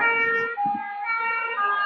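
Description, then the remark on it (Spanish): A loud fire truck siren wails steadily, its tone stepping down in pitch partway through as the truck passes and moves away, an example of the Doppler effect. “Que cuando el camión de bomberos se acercaba a nosotros, hacía un sonido muy agudo, hacía ni, ni, ni, ni, y cuando se aleja de nosotros hace no, no, no, no.”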